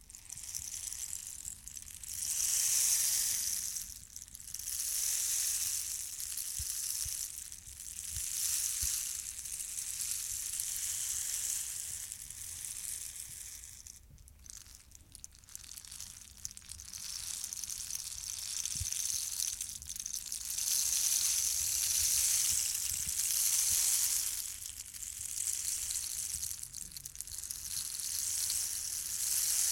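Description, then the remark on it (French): A rainstick, a dried cactus branch from the Andes region of South America, tilted back and forth, its seeds or small pebbles pouring in a continuous rain-like hiss that swells and eases every few seconds, steady for about half a minute with no talking. “Il contient des graines ou des petits cailloux qui tombent en cascade quand on le penche, et ça fait le bruit de la pluie.”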